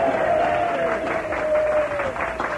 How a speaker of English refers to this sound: Let's give a great cheer to all of those out there who are debating, shall we?